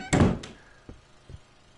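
door being closed

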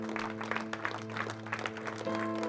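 audience applause

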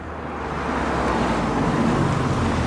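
car pulling up

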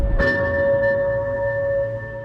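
memorial bell tolling

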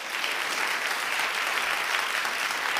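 applause

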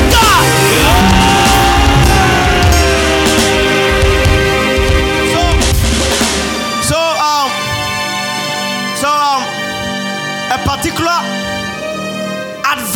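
audience screaming and shouting

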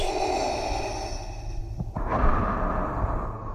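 heavy breathing

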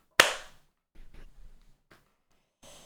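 single hand clap

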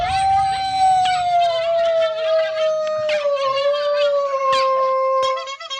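dog howling

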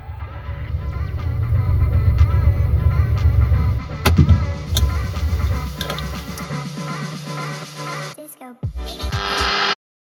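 car engine

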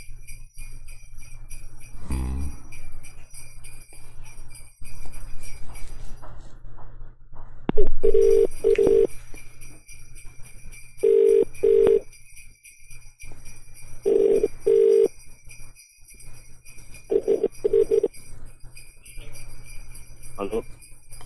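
telephone ringing

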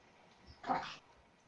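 small dog barking

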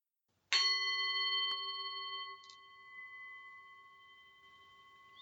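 gong being struck

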